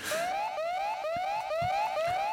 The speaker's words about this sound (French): Alerte intrusion, alerte intrusion, individu indésirable repéré. Danger niveau 3, intervention dans 10 secondes.